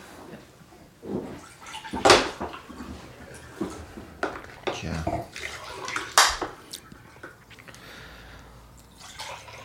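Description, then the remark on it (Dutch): Water is poured into a glass in a few uneven splashing, trickling bursts, fairly quiet, with some clinking and a brief spoken word in the background. “Dus schenk ik even wat water in.”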